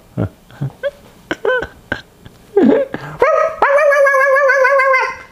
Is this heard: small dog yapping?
yes